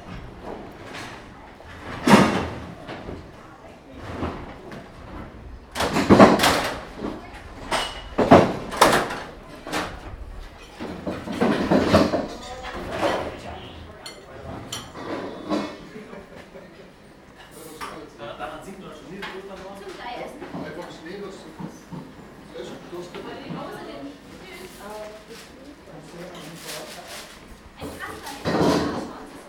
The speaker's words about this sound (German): Ja, wir könnten ja tatsächlich mal in diesen äh, Tellerklapperladen hinein uns das genau, genauer anhören, was sich da so abspielt in einem schwäbischen Metzgergeschäft.